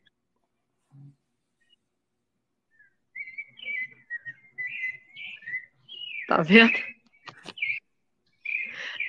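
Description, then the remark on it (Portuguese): Several birds sing loudly outdoors in a run of clear, high whistling phrases and chirps, steady, with a brief spoken remark in between. “eu estou impressionado aqui com os passarinhos cantando aí onde você está.”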